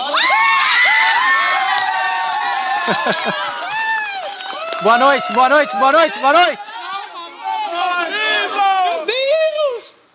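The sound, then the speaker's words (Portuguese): A crowd of excited people shouts and cheers together, loud, with overlapping yells and whoops rising in bursts throughout, on their first day, yelling at host Thiago on live TV. “É sempre assim, no primeiro dia, como vocês estão muito eufóricos, vocês nunca me escutam, é normal, mas agora estão escutando.”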